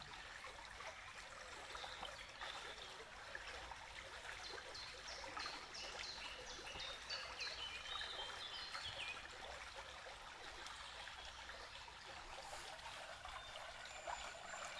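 Water trickles and babbles steadily over stones, a soft continuous stream with gentle splashing texture and no voices, holding an even level throughout.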